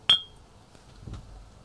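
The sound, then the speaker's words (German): A single bright clink of glasses touching in a toast with cold drinks inside a warm caravan, sharp and ringing briefly, followed by a softer second knock a moment later. “und am besten mit einem kalten Getränk in diesem warmen Wohnwagen. Zum Wohl. Zum Wohl.”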